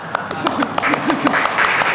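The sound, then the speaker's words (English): An audience breaks into applause, a dense, steady patter of many hands clapping for a couple of seconds, with faint voices and murmuring mixed underneath. “no, you do you don't have to applaud.”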